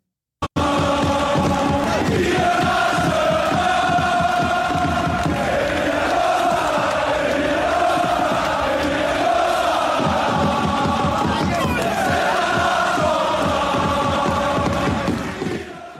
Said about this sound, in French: chant mythique entonné par les supporters du FC Nantes en mémoire du, Nantais et du numéro 9 qui ne sera plus jamais attribué euh, a priori euh, avant un bon nombre d'années au FC Nantes.